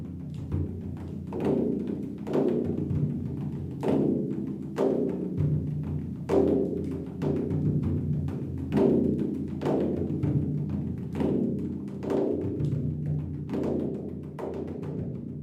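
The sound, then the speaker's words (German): Ten children beat drums at once, each drumming their own heartbeat rhythm, in a loose, overlapping rhythm with regular accented thumps and a busy patter of smaller hits between them, continuing steadily throughout. “Und was passiert, wenn zehn Kinder auf einmal ihre eigene Herzensmusik trommeln?”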